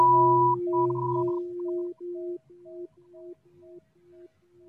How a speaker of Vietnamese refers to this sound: Xin sư cô thỉnh một tiếng chuông cho mọi người thở xong rồi mình tiếp tục.